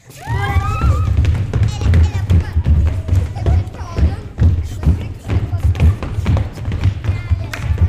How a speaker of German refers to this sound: Und jetzt höre ich alle tanzen.